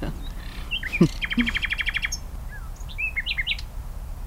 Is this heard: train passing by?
no